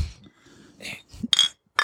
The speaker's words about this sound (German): Es wird mehr angestoßen als üblich.